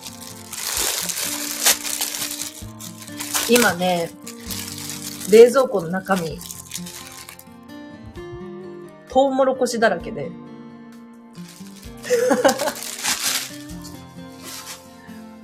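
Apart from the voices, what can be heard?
rustling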